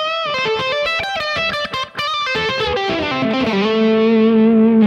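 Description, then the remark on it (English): A distorted electric guitar plays a quick blues lick of bright picked notes with an added blues note, using a little extension position, then bends into a sustained, wavering note held to the end, loud and alone with no voices. “But if I use this little extension down here, it actually sounds quite nice.”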